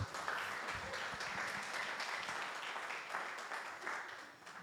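An audience applauds steadily, a dense wash of many hands clapping together that holds at an even, fairly loud level for several seconds before easing slightly at the end.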